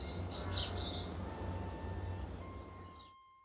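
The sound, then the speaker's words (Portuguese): Songbirds chirp in quick, bright bursts near the start and again briefly near the end, fairly soft, over a steady low rumble and faint tonal hum, with no one talking. “Veio a primavera e por todo lado cresciam flores e cantavam os passarinhos.”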